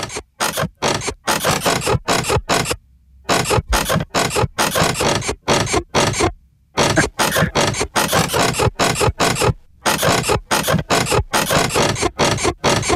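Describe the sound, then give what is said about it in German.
A bed creaks and squeaks in a fast, steady rhythm, loud, with two brief pauses before the repetitive creaking resumes, as a roommate next door has sex on it. No one speaks. “So, das Bett quietscht welchen Song?”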